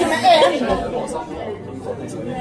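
Dense background chatter of many overlapping voices fills a press room in Gothenburg, Sweden, a steady crowded murmur with no single speaker standing out.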